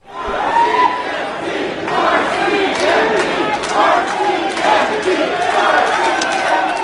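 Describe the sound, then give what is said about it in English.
A large crowd at a Surrey City Council meeting over a controversial budget shouts and yells over one another, a loud, continuous roar of overlapping voices with rising and falling swells like an angry protest, with no single speaker standing out. “It sounds like a big protest rally.”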